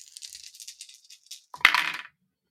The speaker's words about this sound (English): Roll those dice. Roll those 40 10.